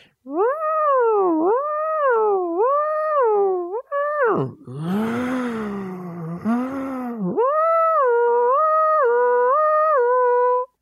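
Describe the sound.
A voice imitates a siren, loud, wailing in repeated rising and falling swoops, with a rougher, strained stretch in the middle before the steady up-and-down wail returns.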